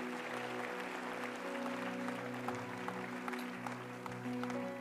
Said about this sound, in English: Come on, give a loud clap offering of praise to the Lord God Almighty.